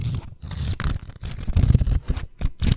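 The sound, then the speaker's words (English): Quick, papery rustling and flapping as the pages of a paperback edition of Star Wars: Master and Apprentice by Claudia Gray are riffled, a rapid run of fairly loud bursts with brief gaps and no voices. “That is the sound of me flipping through the physical pages of the paperback edition of uh, Star Wars Master and Apprentice by Claudia Gray.”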